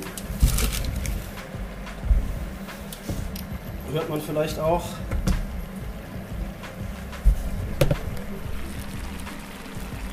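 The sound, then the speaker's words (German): Sugar syrup bubbling steadily as it boils so its water evaporates and the sugar caramelizes, a continuous crackle of small pops and gurgles with a few sharper bursts, while a person speaks briefly over it. “Jetzt blubbert das hier übrigens wie verrückt vor sich hin.”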